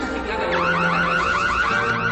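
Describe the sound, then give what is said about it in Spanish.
A smart home security alarm, installed inside the walls as part of a smart home package, blares loudly and continuously, its siren tone sweeping up and down in rapid, evenly repeating cycles with nothing else competing. “Ahora se ha disparado la alarma.”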